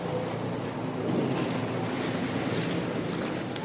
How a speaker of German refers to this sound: Das sind alles irgendwelche Lieferanten jetzt hier und hier ist, hier ist ein Touristenboot, ein, eine Tour.